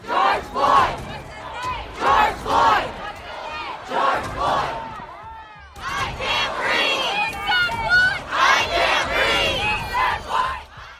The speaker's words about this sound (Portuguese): Não consigo respirar. O aviso de George Floyd, instantes antes de morrer sufocado por um policial que lhe pressionava o pescoço com o joelho, virou o grito entoado por milhares de manifestantes nos Estados Unidos.